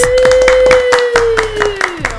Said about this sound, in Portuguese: Uma salva de palmas, senhoras e senhores.